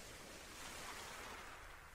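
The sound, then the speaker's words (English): Soft, steady wash of gentle ocean waves splashing onto a beach, a continuous hiss of surf that swells slightly in the middle, heard quietly on its own with no voices. “In your imagination, notice that you are standing on a beach and the waves are splashing gently in front of your feet,”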